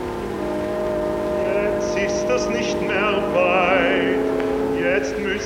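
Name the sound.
airplane engine running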